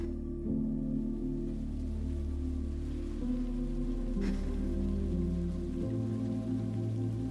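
Steady rain falls continuously under a low, sustained droning tone whose pitch shifts a few times, soft and even throughout with no voices.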